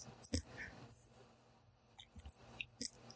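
Faint hammer blows, five or so sharp knocks at uneven intervals, separated by near silence.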